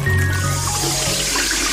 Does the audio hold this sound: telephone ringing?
no